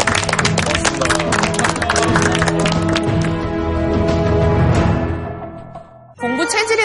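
A studio audience applauds a guest professor in a dense, steady burst of clapping over a sustained musical tone; the clapping thins out and fades, then a voice starts speaking at the very end.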